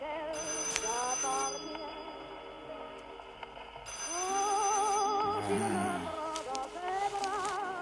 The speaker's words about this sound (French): Ce téléphone. Oui, oui, j'arrive.